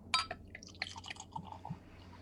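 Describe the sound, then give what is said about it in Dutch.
Beer pours into a glass with soft gurgling splashes and a brief crackle of fizz, quiet, with no talking over it. “Hem inschenken.”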